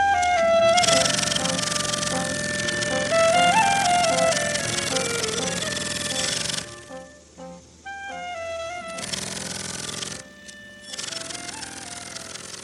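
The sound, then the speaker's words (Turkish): A bright, busy musical jingle, the new jingle of the Metropolitik Kazı segment of the Metro Politika program, with tonal melody lines over dense, buzzy texture plays loudly for several seconds, breaks into a sparse stuttering stretch, then resumes in short loud bursts before ending. “Bu metro politikanın metropolitik kazı bölümünün jingle'ını ilk kez dinledik.”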